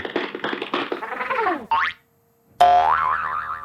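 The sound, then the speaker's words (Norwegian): A cartoon boing effect played from a sound pad: a quick run of twangy, springy bounces ends in a rising zip, then after a short silence a loud, wobbling boing vibrates and rings out, with no voices. “Kan du skaffe oss en boy-oing-lyd?”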